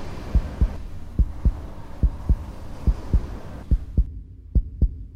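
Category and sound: human body sound, heartbeat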